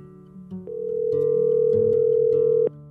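A steady telephone dial tone hums continuously for about two seconds at moderate volume as a phone call is placed, then cuts off abruptly, with faint clicks and low background noise underneath.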